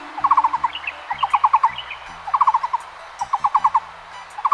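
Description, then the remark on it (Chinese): A wood pigeon coos in a forest before dawn, in short repeated phrases, each a quick run of four or five soft, hooting notes, phrase after phrase in a steady rhythm over a low background hum. “林哥正在练习他那甜美的咕咕声。”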